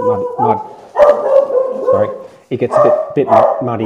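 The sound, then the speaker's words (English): A dog barks repeatedly in short bursts, cutting across a man who keeps talking over the noise. “But um, sorry, sorry about my dog.”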